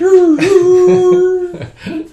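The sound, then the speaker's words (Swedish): A voice imitates whale song with a long, steady, moaning note held for over a second, then a couple of shorter wavering calls, loud. “och så valsång.”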